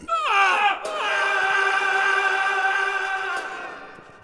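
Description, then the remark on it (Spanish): A man lets out a single loud, drawn-out scream that echoes through a dark alley as he stands at the door of his house, about to put his key in the lock. A short rising cry breaks into a long sustained howl that holds steady for about three seconds before trailing off. “Sacó la llave del bolsillo para abrir la puerta pero antes de meterla en la cerradura, dio un grito que resonó en todo el callejón.”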